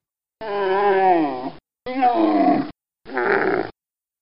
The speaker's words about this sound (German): So, hier mal drei Beispiele. Alles drei Kamelgeräusche.